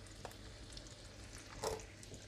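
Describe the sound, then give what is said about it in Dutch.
Sausages for an English breakfast sizzle steadily in a frying pan, a continuous crackling hiss with a low hum beneath and a brief louder pop of spitting fat near the end. “Nou, de worstjes die zitten inmiddels in de pan.”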